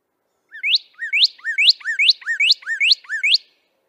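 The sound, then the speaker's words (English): A bird chirps a quick series of about eight bright, rising whistled notes in steady rhythm, clear with nothing else in the background. “We've actually gotten audio recording of one of these modern dinosaurs from a species that Believe it or not, I've actually personally captured a live specimen of on school property.”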